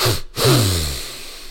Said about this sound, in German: Du atmest zweimal ein, also zweimal, zwei Atemzüge, ziehst du kräftig durch die Nase ein und saugst richtig die Lunge voll. Das hört sich dann so an.